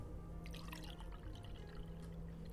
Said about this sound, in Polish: Mm, ja sobie poleję wody, bo kawki nie piję. Czy, e, rozumiem, że ty jesteś już tak wyćwiczona, że potrafisz sobie naleźć wody. Wiesz co, nawet potrafię po dźwięku. Posłuchaj.